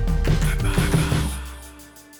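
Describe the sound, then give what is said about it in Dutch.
A fire roars in an open fireplace, a steady low rumbling whoosh with a few soft crackles early on. It is fairly loud before gradually fading. “hoor je de vlammetjes. Het zuist echt eh, enorm in die open haard.”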